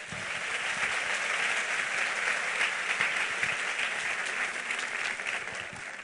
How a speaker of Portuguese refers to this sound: Aleluia. Aplauda aí bem forte.